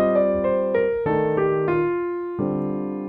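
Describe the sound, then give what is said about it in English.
A piano plays a stepwise descending scale of evenly spaced notes over three sustained chords that change underneath, a ii–V–I progression, clear with no talking. “So now we're going to play our scale using descending, descending uh, motion and uh, place our 251 underneath it.”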